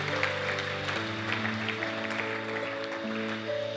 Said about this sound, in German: Komm, lasst uns Jesus die Ehre geben, ihn preisen durch einen Applaus.